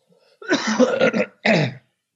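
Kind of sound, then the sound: human body sound, cough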